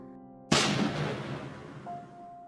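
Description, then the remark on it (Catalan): A trabucaire fires a single loud blunderbuss (trabuc) shot at a festival on an esplanade with more than 500 people. The blast bursts out after a low steady hum, its boom trailing off into a long, rumbling echo that slowly fades. “El so dels trabucs es va silenciar de cop.”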